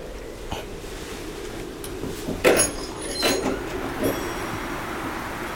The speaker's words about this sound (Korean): 문을 열어보아라.